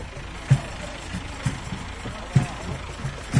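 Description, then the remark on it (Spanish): A tractor engine runs steadily in Lepe, a rough low rumble with heavier thuds repeating roughly once a second, and a faint hiss of outdoor noise around it. “Lo necesario para estos cinco, no olvidemos cinco tractores en este año.”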